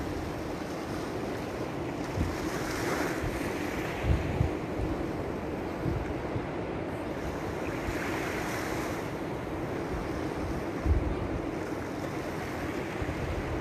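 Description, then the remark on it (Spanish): Ocean waves break and wash ashore in a steady, rushing roar, with two louder surges swelling and fading a few seconds apart, plus some wind buffeting; no voices. “Y ahora vas a visualizar cómo el mar donde estamos, este mar, se transforma en color violeta.”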